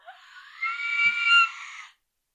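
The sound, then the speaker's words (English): A single voice lets out a thin, high-pitched, strained scream lasting about two seconds, weak and somewhat breathy, swelling slightly before cutting off into silence, with the microphone moved away from the face. “Like that's that's my screaming voice.”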